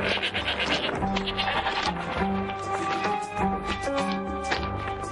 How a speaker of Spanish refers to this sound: Ethan y Benji caminan por una calle estrecha entre casas de adobe. Se cruzan con un pastor y sus cabras.